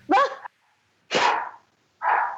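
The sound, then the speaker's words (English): A dog, Doug, barks three times, loud sharp woofs spaced with short pauses, the last bark slightly softer and higher. “Is Doug dog going to come on the show or?”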